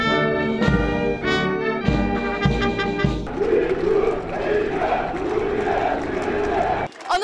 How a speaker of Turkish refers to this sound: kabir avlusundaki az sayıda sivil Cumhurbaşkanı Erdoğan'a alkışlarla tezahürat yapıyor